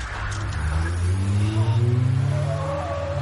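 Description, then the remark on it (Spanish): A police car's engine revs hard as it accelerates while Luke and Chris flee in it, a steady low rumble rising in pitch over a few seconds, loud and without any voices. “Luke y Chris huyen en el coche de la policía.”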